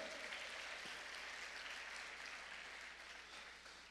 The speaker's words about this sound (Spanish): Dele palmas fuerte al Rey de la Gloria, hermano. Amén.